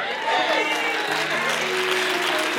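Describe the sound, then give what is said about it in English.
An audience claps steadily throughout, a dense, even wash of hands. Low sustained keyboard notes hum underneath, and a few voices may murmur beneath the applause. “Oh no, you don't want to clap now because you ain't invited anybody to church for the last 15 years.”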